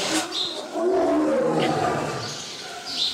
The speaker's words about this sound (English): That's the tiger. See that tiger's beauty. He sounds scary.